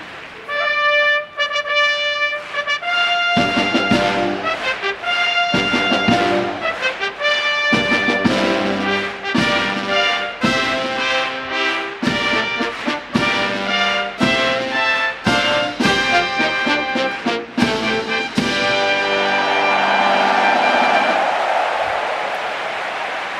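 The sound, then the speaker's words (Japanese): The Japan Air Self-Defense Force Central Band plays a live G1 brass fanfare of punchy, rhythmic chords, loud, before the Tenno Sho (Autumn) horse race at the racecourse in Fuchu, Japan; as the last notes ring out a large crowd erupts in cheering and applause. “航空自衛隊航空中央音楽隊の皆さんによる G1 ファンファーレの生演奏がボルテージを盛り上げます大きな歓声と拍手が府中の空に吸い込まれていきました”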